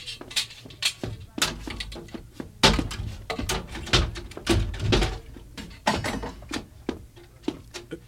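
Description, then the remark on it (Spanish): A door being forced open: an irregular series of heavy thuds, knocks and rattling clatter that continues for several seconds, with brief pauses between bursts of impacts. “Tal vez él pueda abrir la puerta.”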